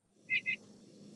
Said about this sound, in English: But it's even more interesting than that there's another kind of, of sound that uh, nuthatches give. So this is a quank call